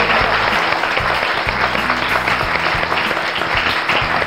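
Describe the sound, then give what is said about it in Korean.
A large audience claps continuously in tribute to the program's producers, a dense, steady wash of applause that stays loud and full for the whole few seconds with no pause or talk. “그리고 또 무엇보다 이 예능을 만들기 위해서 정말 밤샘 작업을 하고 또 기획하고 섭외하시느라고 고생하신 우리 예능 제작자분들께 다 같이 큰 박수 한 번 드려야 될것 아. 같아요.”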